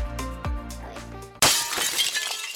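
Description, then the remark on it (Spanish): A sudden loud crash of glass breaking and shattering, followed by a scatter of tinkling shards settling for about a second, after a stretch of steady tonal music. “¿Se rompió ahora? Se repara ya.”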